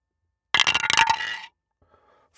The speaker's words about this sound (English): Yes, I have the dice tower and the die. Here we go